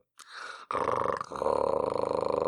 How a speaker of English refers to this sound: But what I can do is I can put the vibration right, uh, right like a flat, like I could put the tongue flat against you, and then I can make it vibrate.